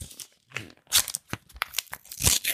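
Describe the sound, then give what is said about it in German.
Paper rustles and tears as an envelope is opened to reveal an award winner, a burst of irregular crinkling and crunching with no voices over it. “Ah, es raschelt”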